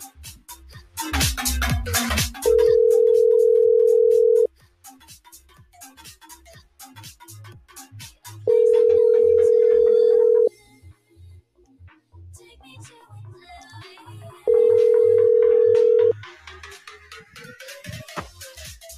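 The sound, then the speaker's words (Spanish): A telephone ringback tone sounds three times as a call is placed, each a steady two-second tone separated by about four seconds of quiet, with a brief burst of rustling noise before the first ring. “O lo llamo yo, voy a llamarlo yo. Vamos, vamos a llamarlo.”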